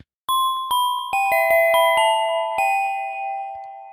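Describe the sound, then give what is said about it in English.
A chime rings out in a short melodic run of about eight struck tones, each bright note overlapping and ringing on as the sequence slowly fades, with no voices. “So, so what I'll do is I will I will play our our our chime.”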